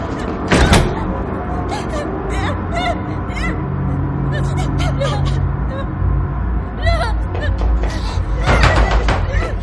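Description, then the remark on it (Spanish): A man shuts the door of a room with a sharp thud near the start, and another heavy bang follows near the end, with murmuring voices and steady background noise throughout. “El hombre la coge en volandas, la arrastra fuera de la habitación, cierra la puerta.”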